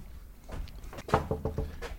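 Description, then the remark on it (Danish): A quick series of about five knocks on an office door, sharp wooden raps in an uneven rhythm, not loud, with no one speaking. “Jeg banker lige på igen og lader som om det hele er totalt spontant.”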